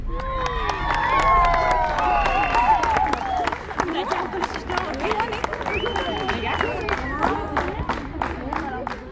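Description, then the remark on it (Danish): A crowd cheers loudly and steadily at a high school girls' volleyball championship match in Kabul, young women in orange Adidas shirts playing, high excited voices shouting and squealing over a dense babble, with sharp claps and thumps popping through throughout. “Volleymesterskaberne for gymnasiepiger i Kabul er fløjtet i gang.”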